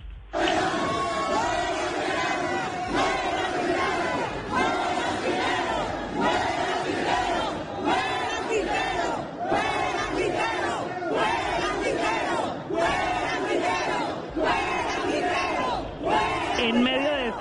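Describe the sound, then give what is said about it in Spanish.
A crowd packed into the galleries of a council session chants protest slogans in unison, "adiós Quintero, chao Quintero, UNE no se vende," loud and steady. The shouted phrases repeat in a regular rhythm of bursts roughly every second, forcing the session to be cancelled. “Escuche usted lo que pasó en medio además de unas graderías llenas donde adiós Quintero, chao Quintero, une no se vende, terminaron gritando los asistentes y obligando a cancelar la sesión.”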